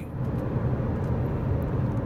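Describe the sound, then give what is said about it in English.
A heavy truck with a trailer brakes hard on the road, locking up its brakes, a dense low engine and road roar that holds level for a couple of seconds with no voices. “I watched this truck just now lock him up on his trailer and uh, it caused him to be able to stop”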